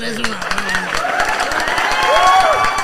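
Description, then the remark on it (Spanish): A crowd applauds steadily with dense, rapid clapping, mixed with loud cheering and shouting voices throughout. “Eso, eso, un aplauso.”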